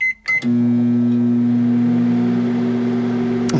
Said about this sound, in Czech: to je mikrovlnka.